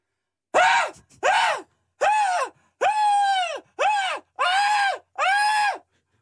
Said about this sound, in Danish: Ellers så kan du sætte dig ned, og så kan du begynde at skrige sådan her.